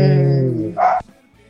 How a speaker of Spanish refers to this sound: Perdón, mis perritos.